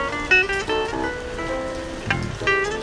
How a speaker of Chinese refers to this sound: 对，然后听听雨声呢，心也静静了下来。